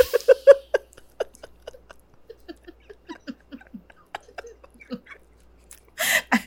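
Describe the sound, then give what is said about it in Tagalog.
Wet chewing of a first bite of ube cheese pandesal: soft mouth clicks and smacks in an uneven rhythm, with no talking, ending in a brief louder breathy burst. “Unang kagat ng mm. ube cheese pandesal.”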